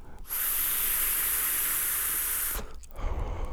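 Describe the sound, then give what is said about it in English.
An electronic vape with a Magma atomizer and an eLeaf battery hisses in one steady, loud burst of about two seconds with a thin, high whine on top. It cuts off abruptly, leaving low rumbling handling noise. “Yep, I've got my vapor, my magma uh, atomizer.”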